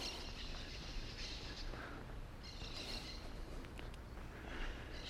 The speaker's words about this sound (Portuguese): A gente escuta ao fundo os periquitos de encontro amarelo.